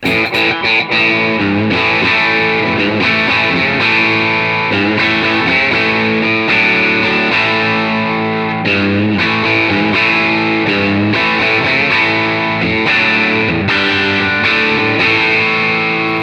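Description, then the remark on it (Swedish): A distorted electric guitar played through an effects pedal, strumming loud, sustained chords that shift every second or so, with a thick, saturated tone and steady volume throughout; nobody speaks. “Den här kudden i lågmidden.”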